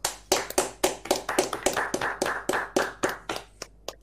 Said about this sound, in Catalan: Així que amb tots vosaltres, eh, en Jordi Ferrer, un aplaudiment, si us plau.